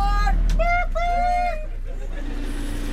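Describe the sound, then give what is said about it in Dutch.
A tour boat's engine rumbles steadily as it pulls away from the Scheepvaartmuseum in Amsterdam with about 20 passengers aboard for a canal tour, with a murmur of passenger voices and a brief, high tonal whine near the start. “We varen net weg van het Scheepvaartmuseum.”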